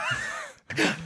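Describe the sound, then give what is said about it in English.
A single sneeze: a rising, voiced intake of breath, a split-second pause, then a sharp, breathy burst that fades quickly. No talking alongside it. “Uh, bless you.”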